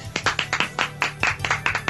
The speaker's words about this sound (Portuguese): Aplausos.